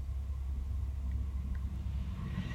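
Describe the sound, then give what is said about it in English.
A big truck rumbles past with a heavy, steady low-end drone that swells slightly toward the end. No one speaks over it. “The subtitle for this chapter, and cue the big truck going past.”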